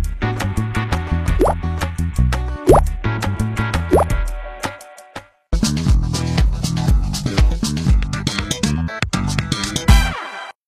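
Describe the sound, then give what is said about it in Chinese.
Goldfish of three varieties dropping into an unlit, dimmer lower-level aquarium tank with a series of quick, bright plops, several upward-bending blips among them, all set against busy, steady background music that pauses briefly midway. “然后放进三个品种的鲸鱼。”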